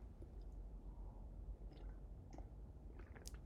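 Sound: sipping coffee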